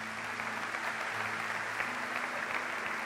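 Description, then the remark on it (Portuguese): An audience gives a strong round of applause to Jesus, a dense, sustained wash of many hands clapping at an even level for the whole stretch, with a low hum underneath. “Dê um aplauso bem forte a Jesus.”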